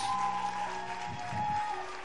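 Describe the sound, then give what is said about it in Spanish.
A church audience claps and cheers for God at a steady, moderate level during a sermon, the applause filling the space while a sustained organ-like tone hums underneath. “¿Cuántos aplauden a nuestro todopoderoso Dios?”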